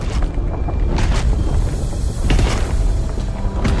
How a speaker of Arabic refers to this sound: فجاه شعر السندباد والمتسابقه بان الارض تهتز تحتهما بخطوات ثقيله